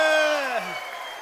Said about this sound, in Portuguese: Pessoal do Santana, um aplauso enorme para eles também.